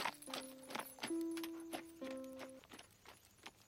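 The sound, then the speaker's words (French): Horse hooves clip-clop in an uneven, unhurried rhythm, fairly loud, tapering slightly over a few seconds as the rider rides away, with a brief tonal drone sounding in the middle. “Fana reste cachée et le cavalier repart tristement.”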